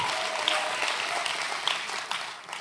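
Steady audience applause, a dense wash of many hands clapping throughout, moderately loud, with no voices over it; applause thanking the person who made a presentation slide for the preacher.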